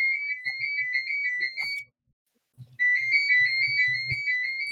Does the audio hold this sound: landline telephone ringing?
yes